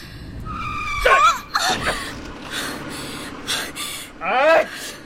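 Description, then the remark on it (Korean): A car's tires screech loudly in two sharp squeals as the driver slams on the brakes hard, with startled gasps and brief vocal sounds in between. “그렇게 그 브레이크를 밟으면 어떡해!”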